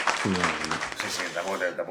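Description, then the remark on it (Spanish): A short burst of applause for a point won by a gentleman in a quiz, dense clapping from a crowd with voices mixed in, loud, lasting just under two seconds. “aplauso corto.”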